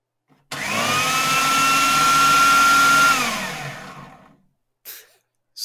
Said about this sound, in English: Stop vacuuming